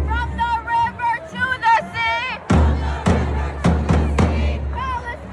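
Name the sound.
protest crowd chanting slogans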